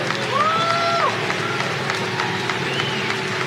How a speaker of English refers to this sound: Did you see all them clapping there at the end? Like even his wife, you see them there clapping like trained seals.